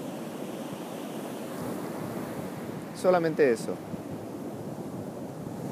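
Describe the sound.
Steady ocean surf rolls in the background throughout, a soft continuous wash of waves, while a voice briefly speaks a couple of words midway.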